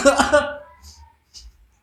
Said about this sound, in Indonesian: oh, saya batuk nih